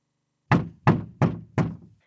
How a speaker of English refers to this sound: She pounded on the door of his condo.